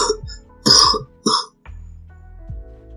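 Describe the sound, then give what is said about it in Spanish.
A person imitates the persistent, hacking cough of a man left with pneumonia: three harsh coughs in quick succession, the middle one loudest, then a quiet stretch with only a faint low hum. “Y después los Félix, bueno, murió, pero eh, caminaba por, la, por el campo y caminaba siempre tosiendo.”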